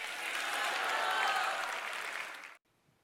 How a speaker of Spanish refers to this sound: Dar un aplauso a Cristo.